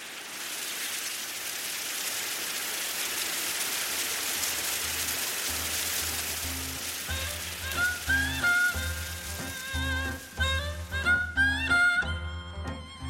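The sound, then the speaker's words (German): A dense, steady rustle of green bamboo leaves stirring in the wind in a shady bamboo grove, on a narrowing path to a lookout platform, fills the first half, then a gentle melodic music bed fades in and takes over as the rustling recedes. No one speaks. “Adam hält kurz an und hört, wie die grünen Blätter des Bambus im Wind rascheln.”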